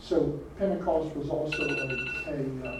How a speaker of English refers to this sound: sorry, that's my alarm.